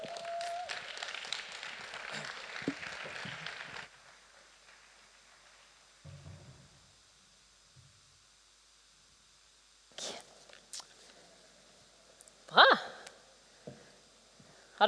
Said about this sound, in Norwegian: Men hun er ikke hver søndag akkurat, så jeg syns vi skal ønske henne litt ekstra velkommen med en skikkelig applaus.